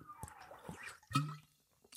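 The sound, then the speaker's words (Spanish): Someone takes a sip of a drink: soft wet slurping and lip smacks, a louder gulp in the middle, then a brief sharp click at the end. No one speaks. “Antes que nada vamos a hacer un traguito de estos dramáticos”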